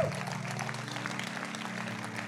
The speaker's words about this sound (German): Komm on, wir geben Jesus mal einen fetten Applaus.